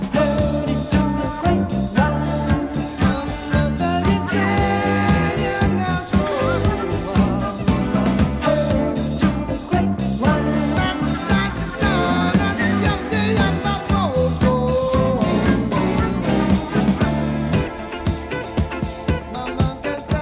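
A full-band song plays from a vinyl record, steady and loud with dense instruments and vocals throughout, and no one talking over it.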